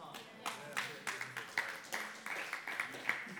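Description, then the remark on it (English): Sparse, uneven audience clapping, a thin scattering of quiet claps at an irregular pace that never builds into full applause, with faint murmuring in the background. “You can, that was a half hearted clap for a fantastic point.”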